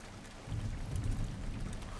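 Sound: rain falling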